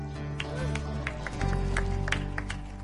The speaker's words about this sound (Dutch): Een slap applaus. Kom even, applaus voor de hoge priester.